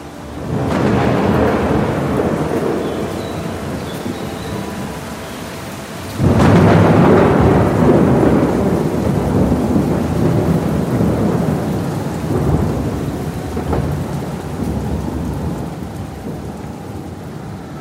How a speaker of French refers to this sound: Depuis quelques jours, en ce début d'hiver 59, la région connaît des pluies diluviennes. Une très violente tempête d'Est s'est déclenchée.